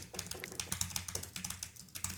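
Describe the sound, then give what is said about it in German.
Rapid, loud clacking of keys on a computer keyboard as someone types loudly, a dense irregular stream of keystrokes with no voices. “Ähm, also geklickert wird hier schon und wenn ich tippe, dann klingt das so.”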